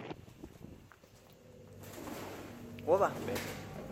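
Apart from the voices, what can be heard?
pigeons cooing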